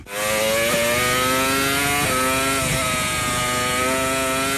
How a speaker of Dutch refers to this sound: Dit is een v 10 motor